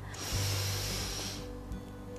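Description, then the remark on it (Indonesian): A long, deep inhale drawn through the nose during a seated meditation breathing exercise, a steady airy hiss lasting over a second, heard on its own without any talking. “Kita menarik nafas panjang.”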